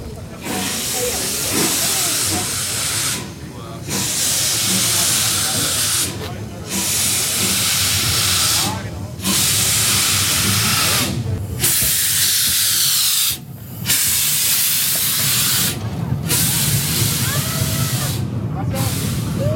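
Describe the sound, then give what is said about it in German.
Loud, steady hissing of steam from a class 44 steam locomotive standing on the large outdoor grounds of the Meiningen steam locomotive works in fine autumn weather, broken by short regular pauses every couple of seconds, with faint low mechanical rumbling beneath and no clear speech. “Er geht zielstrebig auf eine Dampflok der Baureihe 44 zu.”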